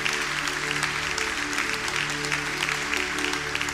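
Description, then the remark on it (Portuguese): Steady applause from a church audience applauding the Lord before an altar with bread and wine, a dense wash of many hands clapping at an even level for several seconds, with a low musical hum sustained underneath. “Se você quiser, pode até aplaudir o Senhor, porque existem pessoas que vão ser marcadas.”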